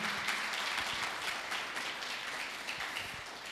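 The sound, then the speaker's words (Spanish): A crowd applauds steadily, a dense wash of many hands clapping at once, sustained at an even moderate level from start to finish with no voices over it. “Y nosotros los que estamos aquí presentes, ¿por qué no le damos un fuerte aplauso a toda esa gente maravillosa que se conecta del otro lado de la pantalla?”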